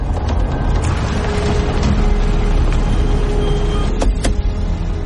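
A car pulls over at the roadside, its low engine and road rumble holding steady throughout, with a couple of sharp clicks near the end and no voices.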